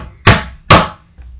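Two loud, heavy knocks as Elizabeth, dressed in a paper bag, bangs a big knocker on a dragon's huge door, landing about half a second apart, each with a short booming ring, and a faint soft tap follows. No voices.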